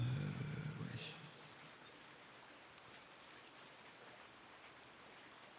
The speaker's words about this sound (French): S'il n'avait pas eu sa voiture, il serait rentré pour ce se protéger de la pluie, du tonnerre, mais là, dans sa bagnole, il craint rien.